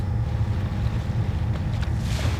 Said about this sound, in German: Was sollen wir hier mitten auf dem Ozean? Mitten auf dem Ozean ist übertrieben. Der ganze Hafen hat gelacht. Ein Riesenschlauchboot, ein Plastikboot, ein Glasfieberboot.